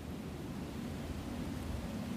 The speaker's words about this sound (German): Aber das Flugzeug hört man sicher.